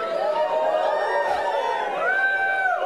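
A large crowd practising cheering cheers and shouts together, many voices overlapping in a loud, sustained jubilant roar that swells and holds for a few seconds.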